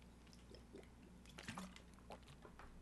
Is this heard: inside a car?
no